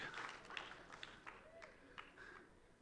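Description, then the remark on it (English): An audience applauds with a scattered patter of claps that stays fairly soft, while faint voices murmur underneath. “Even if we don't, yeah, you can clap.”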